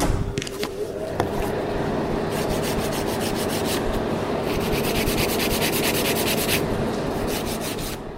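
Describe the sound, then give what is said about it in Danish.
Quick, rhythmic rasping strokes of a nail file shaping fingernails come in bursts over the steady, constant drone and low hum of a fan switched on for the filing. No one speaks. “Øhm, nu er jeg nødt til at tænde blæseren og så sidde og file.”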